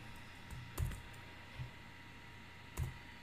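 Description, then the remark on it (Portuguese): A few sparse keystrokes on a computer keyboard, soft, with irregular pauses between the clicks against a quiet background and no talking, as someone types out a French sentence they heard. “Aí eu vou escrever como o que eu ouvi, tá?”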